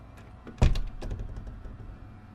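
A heavy wooden office door is pushed open by someone entering, with a dull thud, followed by a few softer knocks and rattles as it swings and settles.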